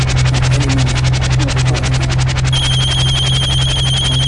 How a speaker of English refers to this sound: Oh, that ringtone. Yeah. Oh man. Those when I have a cell phone.